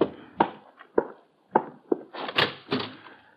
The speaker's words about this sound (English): It's almost 11 that night when there's a rap on my door.